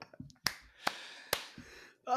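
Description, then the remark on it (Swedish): Three crisp hand claps ring out at a steady, slightly slow pace, fairly loud, with brief murmurs of a voice before and after. “Applåd! Ja, jag applåderar dig”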